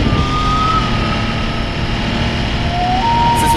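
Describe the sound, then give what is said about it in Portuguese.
A loud, steady racing video game car engine roars with a thin whine that shifts slightly in pitch, over dense rumbling and road noise, as the car slides all over the place. “que o carro tá escapando pra tudo quanto é lado.”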